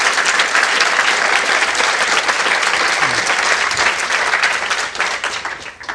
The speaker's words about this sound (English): So, anyway, let's give a big hand to the author of Chasing the Scream, Grant Harris.